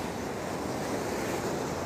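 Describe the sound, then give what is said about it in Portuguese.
Ocean waves break on rocks in a steady, continuous roar of surf and hissing foam, with no distinct pauses between swells and no voices. “Ouça aí, utilize a sua imaginação e é ouvindo aqui comigo o barulho das ondas quebrando nas pedras, horas um som mais forte, ora um som mais fraco, as ondas podem vir com força e depois mais fracas,”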